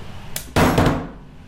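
A steel weight disc, held by a magnet in a test machine, drops from a height of 20 centimetres onto a medical implant: a faint click, then a sharp metallic clang with a bright, ringing tail that fades over about half a second.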